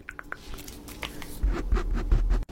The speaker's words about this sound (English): She's tapping her nails against the primer. Oh, she's making those beautiful little ASMR sounds of primer on her.